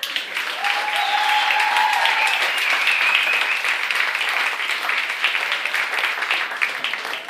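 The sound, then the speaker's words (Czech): Steady, loud applause from a stand-up comedy audience as a performer is welcomed on stage fills the whole stretch, a dense wash of clapping with brief whistles or cheers rising over it early on. “Takže poprosím velký potlesk”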